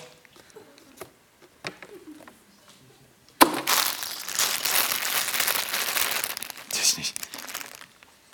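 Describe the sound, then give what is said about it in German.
Paper and packaging crumpled, starting abruptly with a loud rustle and continuing as dense, crackling crinkles for several seconds, after a few quieter scattered taps and handling noises. “Flieger? Nix Flieger. Lauter Bröckel. Papierkram. Ich will einen Flieger, kein Papier.”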